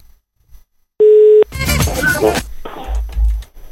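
A single loud, steady mid-pitched telephone ringing tone on an outgoing prank call, lasting under half a second, followed by a burst of crackly line noise and muffled sounds.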